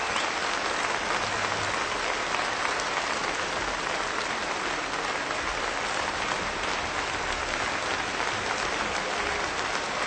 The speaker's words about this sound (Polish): Najpierw słychać było muzykę, potem oklaski, którymi publiczność nagrodziła wykonawcę. Przykład ten ilustruje związek między przyczyną muzyka i skutkiem oklaski.